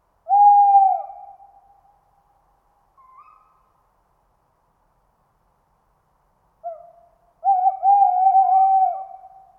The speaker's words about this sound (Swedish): Ja, jag tröttar aldrig på ugglor. Och när man får kontakt som vi fick idag förut, då, då ryser det till i hela kroppen. Yes, vi har en.